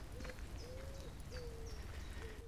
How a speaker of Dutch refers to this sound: En de duif koert boven mijn hoofd.